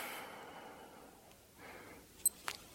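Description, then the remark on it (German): A long, soft, deep and complete breath pushed out slowly through the nose during a breathing exercise, an airy hiss that fades over a second or two, followed by a quieter second breath and a couple of tiny clicks. No talking. “Atme zunächst sehr tief vollständig aus.”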